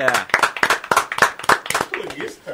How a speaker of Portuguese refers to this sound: Tá aí, ele veio, hoje ele veio. Uma salva de palmas.